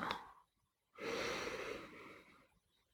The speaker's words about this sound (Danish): Træk vejret ind og pust ud og festne din opmærksomhed i kroppen. Træk fokus ind i kroppen.